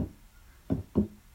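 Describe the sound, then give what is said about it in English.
A heartbeat: one deep, muffled double thump, a quick lub-dub pair of low pulses, clear against a quiet background with no voices. “So what you're hearing right now is a heartbeat.”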